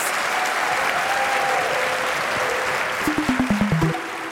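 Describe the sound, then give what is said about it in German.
A live audience at the Empore in Buchholz applauds in a dense, steady wash of clapping, joined near the end by a short run of rhythmic stomps or beats rising in pitch. “Und zum Abschluss wollen wir euch noch einmal hören”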